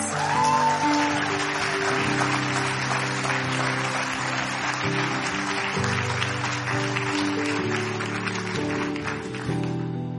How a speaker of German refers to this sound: Ich glaube, das ist der Moment für einen richtig heftigen Applaus.